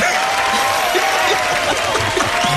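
A crowd applauds steadily throughout, a dense, even wash of many hands clapping at constant loudness, with a faint murmur of voices underneath.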